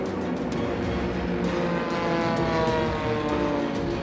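A loud, continuous roar of A6M2 Model 21 Zero fighter plane engines taking off from aircraft carriers at 6:15 for the first-wave attack on Pearl Harbor. It is a steady droning hum with layered tones that holds for the whole stretch, with no voices.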